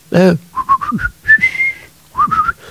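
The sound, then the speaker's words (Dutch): A person whistles a short melody in a Russian person's house, a few quick bright notes and then a longer sustained tone, with a brief voiced sound at the start. “En het is pas achteraf, dagen later, dat iemand mij zei: Dat moet je niet doen, fluiten in het huis van een Rus.”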